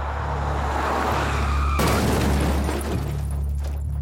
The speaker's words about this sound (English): the car skidded off the road and hit a tree, killing him instantly.